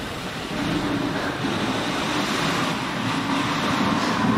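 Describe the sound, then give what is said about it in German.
A steady, roaring storm wind mixed with crashing surf fills the whole stretch, loud and dense with a rumbling low end and constant hiss, no voices present. “Zuerst kam ein heftiger Sturm.”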